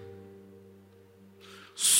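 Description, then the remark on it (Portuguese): A voice imitates a strong wind, starting with a low steady hum and ending in a sudden loud, breathy whoosh of blown air. “som de um vento forte.”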